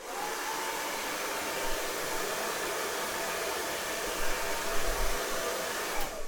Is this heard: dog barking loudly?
no